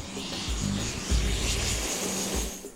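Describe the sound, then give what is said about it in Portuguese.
A Brazilian Army propeller airplane drones steadily in flight, carrying a news team to an indigenous area in Pará state. Its low engine hum swells and eases slightly with a broad rushing noise over the top, continuous throughout. “Para chegar até aqui, nossa equipe teve apoio de um avião do Exército.”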